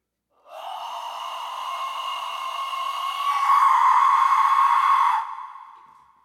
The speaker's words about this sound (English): I need to learn how to play it better. Yeah, so so I got a new Death Skull I need to learn how to play. Does it, does it sound like screaming people? All right. Huh, does it sound like people screaming?